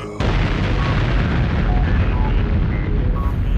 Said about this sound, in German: Peng, Explosion, Rockhütte Podcast.